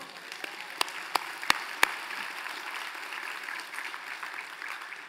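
An audience at a Spanish-language church service breaks into steady applause for the Lord, a dense wash of many hands clapping at moderate volume, with a few sharp louder claps standing out early on; no one speaks.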